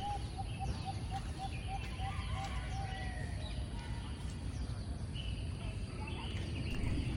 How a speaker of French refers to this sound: Et d'y aller le matin de bonne heure, c'est un régal. Euh, avec la lumière du solaire et écouter le chant des oiseaux.